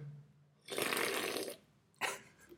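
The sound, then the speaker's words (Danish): A wet slurp of a hot morning drink lasting nearly a second, followed by a shorter second slurp after a brief pause, heard alone with no talking. “lille slurp, lidt uh, øh, ASMR her mm. på morgenstunden af.”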